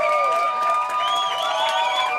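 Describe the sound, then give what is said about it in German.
A packed crowd of about 130 people at a small concert cheers and screams loudly as the show suddenly begins, a dense continuous roar of many high voices that stays steady, with no single words standing out. “130 Menschen warten aufgeregt, dicht gedrängt und dann geht's ganz plötzlich los.”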